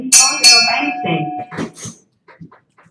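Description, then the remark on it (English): A loud audition bell clangs near the start, its bright metallic tone ringing and fading over about a second and a half while voices chatter around it, followed by quieter scattered sounds. “Come on, we're gonna give you the this on, the audition bell right here.”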